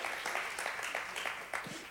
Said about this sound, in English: Why don't you guys give him a hand clap? Because that was kind of a bold step. That was a bold step. That was awesome.